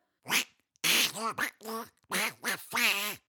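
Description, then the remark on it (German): A voice imitates a cartoon duck, letting out a rapid series of about five raspy, buzzing quacks, fairly loud, like garbled angry duck-talk. “Hafermilch, du dumme Ente.”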